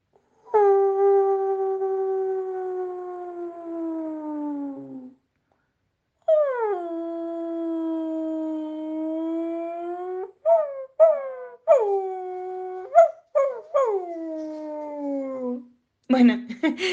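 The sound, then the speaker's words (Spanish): A person imitates a lonely dog: two long, drawn-out howls that sag in pitch, then a quick run of short yelping barks and whines, fairly loud. “Entonces, sería un aullido con ladrido por soledad, algo como así esto.”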